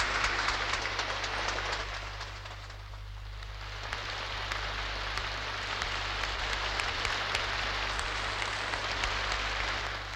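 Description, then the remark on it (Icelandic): Audience applause after a trumpet fanfare in honour of Halldór Kiljan Laxness at a ceremony where he receives a prize from the king: a dense, steady wash of many hands clapping for about ten seconds, briefly easing early on before swelling again, with a constant low hum beneath and no talking. “Fólki klappar.”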